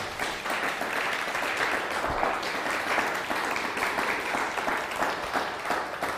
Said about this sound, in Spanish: Así que un fuerte aplauso al Todopoderoso.